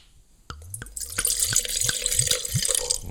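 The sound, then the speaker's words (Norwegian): Julegrisling wine from winemaker Mathias Gaul pouring into a glass: a sudden start, then a steady splashing stream with a string of rising glugs from the bottle, fairly loud and with no voices. “Skal vi se, Nå skal jeg helle i glasset her.”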